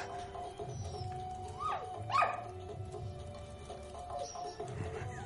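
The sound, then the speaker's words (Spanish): A dog whimpers and lets out short, high yips, a few rising and falling whines over a low, steady background hum, as a cake is set on the floor for it, with no one talking. “El último perro vivo Coge la tarta y se la pone al perro en el suelo.”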